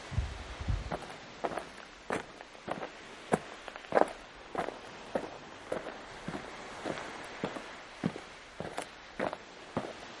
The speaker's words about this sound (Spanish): Oigo pasos.